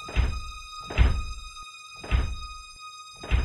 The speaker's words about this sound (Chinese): 在一个月黑风高。伸手不见五指的晚上，我听到门外传来有节奏的敲门声。